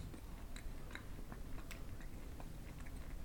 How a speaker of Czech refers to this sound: Já odmítám, dokud budeš tady takhle tady dělat mm a mlaskat, já odmítám pokračovat podcastu.